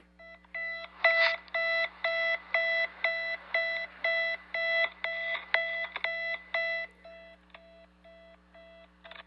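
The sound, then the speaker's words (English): An old-fashioned alarm clock rings to wake someone up, in a fast, steady run of loud, shrill pulses for several seconds, then fades into a few weaker bursts; no one speaks. “when I grew up, you had one choice, Buster Brown, one thing to wake you up, and this is what it sounded like”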